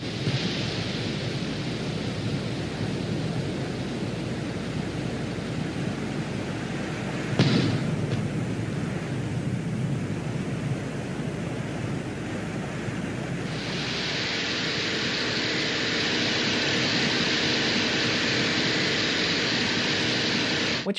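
Wind on the surface of Venus captured by the Venera 14 lander, a 96% carbon dioxide atmosphere moving across the surface at about half a metre per second: a steady, rough roar with a deep rumble and hiss, a brief louder gust partway through, then a brighter, sharper hiss toward the end.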